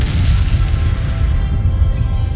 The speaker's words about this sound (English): And all of a sudden, a tremendous explosion shook the very foundation of the lodge, knocking them to the floor.